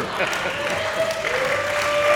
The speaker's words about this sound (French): Ben, ça, au moins, ça finit avec des applaudissements.